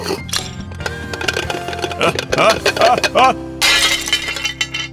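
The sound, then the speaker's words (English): A ceramic bowl shatters, a sharp crash followed by a scatter of clinking, rattling fragments, then a final burst of bright, crunching debris settling. “That bowl was alive!”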